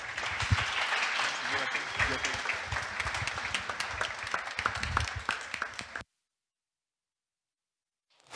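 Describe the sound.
A church audience applauds to welcome the next speaker, with steady, dense clapping for about six seconds, some voices mixed in, before it cuts off abruptly into silence.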